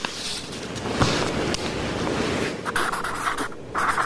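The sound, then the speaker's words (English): A felt-tip magic marker squeaks and scratches across paper in continuous strokes as a bill prohibiting vaccine passports in Texas is signed, with a few brief pauses and sharper taps between strokes. “Sounds like he's got a magic marker, doesn't he?”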